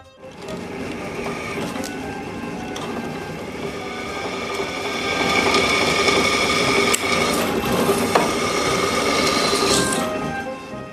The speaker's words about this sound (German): wie bohren, unzählige äh, Mengen von Löchern bohre ich da.